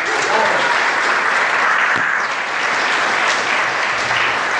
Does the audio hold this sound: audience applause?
yes